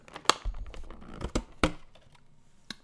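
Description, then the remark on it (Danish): Crinkling of the plastic wrapper of a package about 4 cm high, 10 cm wide and 15 cm long, holding two raspberry slice pastries, being torn open, with sharp crackles and a few loud snaps spread over about three seconds, then a faint final rustle. No talking. “Øh, og hvis jeg prøver at åbne den, nu kan I få lov til at høre det.”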